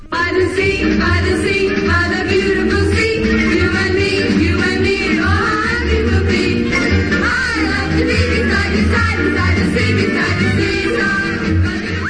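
Upbeat film soundtrack music plays steadily and loudly throughout, layered melodic lines and sustained chords riding over a pulsing low bass, with no voices.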